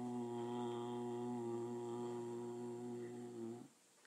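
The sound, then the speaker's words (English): A single voice holds a long, steady chanted Om, a low nasal hum sustained at one pitch for over three seconds before it stops abruptly into near silence. “So that ma has to be pluta, has to be long, not the o.”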